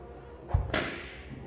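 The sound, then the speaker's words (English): A soft low thud followed a moment later by a single sharp, bright whip crack that snaps and fades quickly over a quiet background, as a line of captives is marched two by two through narrow city streets. “At the crack of a whip, they are marched two by two through the narrow streets of the city, following a train of camels and pack animals.”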